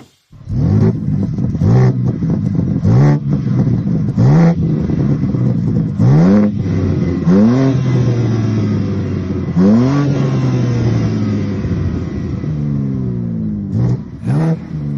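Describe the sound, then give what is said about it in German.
A petrol car engine fitted with a particulate filter revs up sharply again and again, each blip rising and falling back to a steady, throaty idle. The sound is loud, with no talking. “der Sound hat mich jetzt nicht komplett überzeugt, aber wir müssen natürlich auch bedenken, OPF und so, das haben wir ja schon oft genug hier besprochen.”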